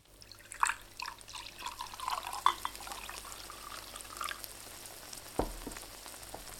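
Food sizzles and crackles steadily in a hot frying pan, used in place of a torch to flambé it, with scattered sharp pops and spits over a continuous hiss; no one speaks.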